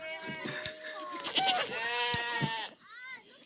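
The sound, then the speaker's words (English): A person imitates a goat's bleat, a wavering, nasal 'bleh' held for a couple of seconds, loud, with a quieter trailing bleat at the end. “We gotta get a goat.”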